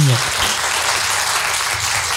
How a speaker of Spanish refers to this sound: un aplauso a los rarámuris con mucho cariño.